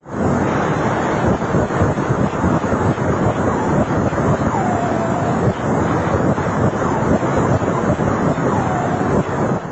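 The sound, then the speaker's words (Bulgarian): A computer-generated sonification of a black hole made by NASA specialists, translating X-rays associated with the black hole into sound: a loud, continuous roaring rumble like wind or surf, with faint eerie gliding tones drifting through it, and no voices. “ето и звука от черна дупка. Разбира се, той не е реален, а компютърно анимиран от специалисти на НАСА.”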